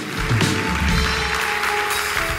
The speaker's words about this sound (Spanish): Dios le da descanso a tu alma. Dele un aplauso a Dios el que lo crea.